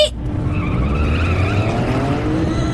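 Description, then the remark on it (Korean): A bus takes off hard on a road with almost no other cars, its engine roaring steadily while high, whining tire squeals glide up and down over the top, loud and unbroken for about three seconds with no voices. “기사님의 평온한 표정과는 정반대로 진짜 거의 번개의 속도로 레이싱을 펼치셨어요.”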